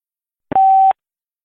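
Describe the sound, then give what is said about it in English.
A single short electronic telephone beep signalling that a caller is connected to the host, a steady mid-pitched tone lasting under half a second, clear and alone, with a faint click at its start and end. “A beeping noise will indicate when you are on the show with the host.”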